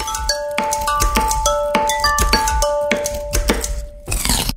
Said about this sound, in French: On va trinquer. Santé, plaisir.